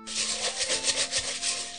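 A wok being scrubbed behind a door: quick, rhythmic scraping strokes, steady and fairly loud, hissing and bristly, with no voices.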